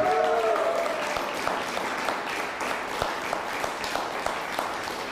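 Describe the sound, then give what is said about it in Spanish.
An audience applauds steadily for about five seconds, a dense, even wash of many hands clapping with sharper individual claps popping out now and then, holding a constant loudness throughout. “Un fuerte aplauso.”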